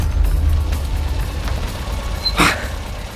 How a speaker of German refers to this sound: Nach zwei, drei Kurven waren sie außer Sicht, sodass Bob den Wagen auf dem sandigen Seitenstreifen abstellen konnte.